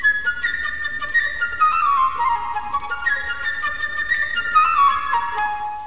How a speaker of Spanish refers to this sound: Aquí los personajes están representados por instrumentos de la orquesta. El pajarito es una flauta.